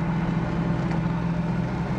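A jet ski engine drones steadily on the water, a loud, continuous low hum with a strong rumbling tone that holds for the whole stretch, with no voices over it.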